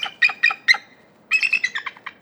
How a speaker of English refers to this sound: And for this, you know, for this animal that's held up as this completely majestic symbol of our country thing, its its voice is so tiny and just completely, completely goes against what you think of when you think of a bald eagle.